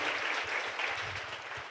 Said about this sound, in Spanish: Así es que vamos a recibirlo con un gran aplauso. Bienvenido, Tocayo.